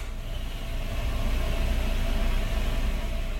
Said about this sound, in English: These sounds were ambient office noise, computer keyboard typing, a semi loud conversation at a neighbor's desk, the coffee grinder heard from steel conference room,